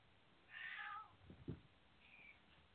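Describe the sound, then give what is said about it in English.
A male cat inside at a door, trying to get out, meows plaintively in a drawn-out, whining call, followed by a couple of short, softer chirps and a faint trailing mew, with no talking. “I'm really confused on that one because before I could have sworn my cat was outside the door whining to get in.”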